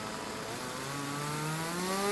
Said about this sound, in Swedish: Klockan är tio, motorsågarna startas och det tar inte lång tid innan första trädet faller.